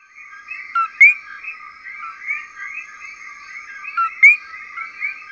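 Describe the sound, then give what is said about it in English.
Two coquí frog calls, each a short low note followed by a sharp, higher rising chirp, about three seconds apart, over a steady buzzing chorus of night insects and frogs. No one speaks. “The first part of the call is a low pitched ko, and then the second part is a high pitched ki.”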